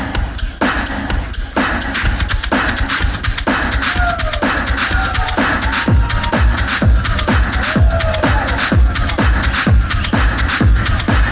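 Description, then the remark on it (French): A man beatboxes a loop with his mouth, loud: dense, steady rhythm of deep kick thumps and crisp snare and hi-hat clicks, with brief sliding tonal sweeps woven in, and no talking. “Et après, la beatbox va lui permettre de soit jouer ça en boucle, soit de déstructurer sa boucle à la volée.”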